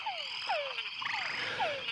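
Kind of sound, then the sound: animal, túngara frog mating call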